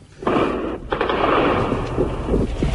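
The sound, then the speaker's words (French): Tanks firing: three tanks taking position and firing on the presidential palace, surrounded by Viet Cong forces, with machine-gun fire on the palace; a loud, unbroken barrage of heavy gunfire, thick rumbling blasts overlapping with sharper cracks, lasting nearly three seconds with no voices. “Il y a, à mon avis, trois chars qui sont en train de prendre position et de tirer sur le palais présidentiel, maintenant complètement cerné par les forces du Vietcong.”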